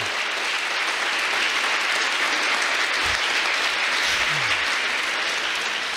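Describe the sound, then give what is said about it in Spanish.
An audience breaks into loud, sustained applause for God, a dense steady wash of clapping that holds at an even level for several seconds with no voices standing out. “Dele un aplauso fuerte a Dios.”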